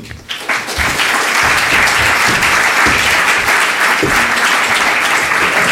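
At an evening talk, an audience breaks into sustained applause for the speaker, a dense wash of clapping that swells quickly and holds steady and loud for several seconds with no one speaking over it.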